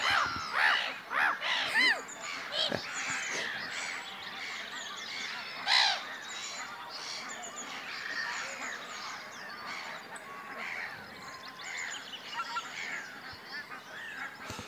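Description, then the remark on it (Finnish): A flock of geese, including tundra bean geese and barnacle geese, calls while flying just above the water surface: a continuous overlapping chorus of honks, with a few louder calls standing out near the start and middle. No one speaks. “No niin, hanhia menee samalla tavalla tuossa noin, ihan veden pinnassa.”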